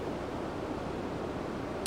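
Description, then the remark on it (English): The Merced River in Yosemite Valley flows and rushes steadily, a continuous, even wash of noise at moderate volume with no voices, ending on a brief soft bump. “We're alongside the Merced River, which makes a lovely foreground to the view and a great background soundtrack.”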